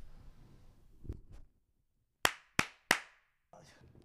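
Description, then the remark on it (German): Three sharp, loud hand claps in quick succession, made to synchronize audio recordings, each ringing briefly into a quiet pause, preceded and followed by soft room noise and faint handling bumps. “Geht, aber lass trotzdem synchronisieren.”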